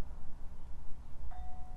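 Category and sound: household object, wind chimes ringing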